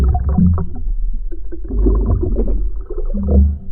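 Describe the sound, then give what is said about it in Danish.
Someone blows bubbles with their head in a bucket of water: a steady, loud, low, muffled gurgling with a hollow, moaning tone that swells and dips over several seconds, with no talking. “Jamen, han står med hovedet nede i en spand vand.”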